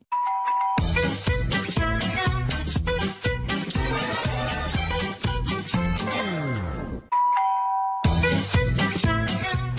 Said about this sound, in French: Même moi, j'ai trouvé. le générique de Nos Chers Voisins.